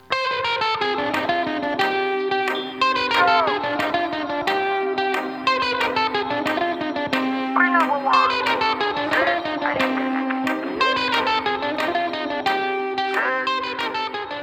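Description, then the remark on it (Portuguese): A bright, effects-laden guitarra baiana plays a fast lead, with quickly picked repeated notes and bending slides over a steady backing, loud and continuous throughout. “o dono dessa guitarra baiana aqui, ó.”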